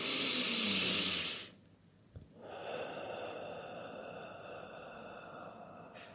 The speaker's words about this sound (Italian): E ora l'intenzione di oggi, un bel respiro profondo.